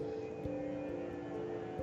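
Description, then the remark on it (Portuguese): An airplane drones overhead, passing above a house, a steady low engine hum with a faint whine, holding at an even, moderate level. No one speaks. “Olha o avião passando na sua, em cima da sua casa.”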